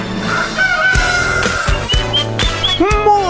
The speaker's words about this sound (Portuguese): Muito bem, Atlântida, Rádio das Nossas Vidas, a melhor vibe da FM, com a vinheta certa, Ai. está no ar o Despertador.